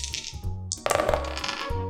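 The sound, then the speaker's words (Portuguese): Three dice are rolled to decide who gets to choose the order of the results, producing a sudden burst of sharp clicks and a dense clattering rattle that continues for about a second over a low, steady background hum. “Então vamos jogar três dados para ver quem vai ter o direito de escolher a ordem dos resultados.”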